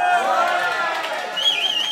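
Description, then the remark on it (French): An audience settling into the studio at Le Bel Air, the bar of France Inter's Maison de la Radio, before the show Foule Sentimental: a steady, dense murmur of many overlapping voices chattering, with a few brighter, higher-pitched calls rising out of the babble toward the end. “Ça s'appelle du monde J'entends les gens qui s'installent, présentément dans le studio, ça s'appelle foule Sentimental,”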